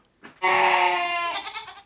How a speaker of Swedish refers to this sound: Och en get. Vad härligt!